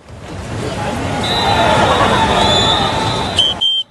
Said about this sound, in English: Cheers generally mean that uh, you have messed up your line. Che- cheers generally mean that somebody is going in the water.